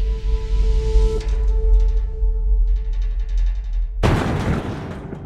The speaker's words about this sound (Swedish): Samma morgon som polisen griper adelsmannen prins Heinrich den trettonde Reuss så ljuder en explosion genom en liten by i västra Tyskland. Polisen har sprängt dörren till en lägenhet i ett flerfamiljshus.